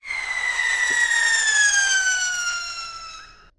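A loud, steady whistle glides slowly downward in pitch for several seconds as a monster truck flies down from a height, the classic sound of something falling through the air, heard alone with no talking.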